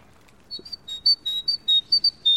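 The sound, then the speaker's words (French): A blackbird's alarm call: a quick series of about eight sharp, high-pitched notes repeated in an insistent rhythm, clear against a quiet background. “Ça c'est pas un chant, c'est un cri de fuite, c'est un cri d'alarme de, Merle Noir.”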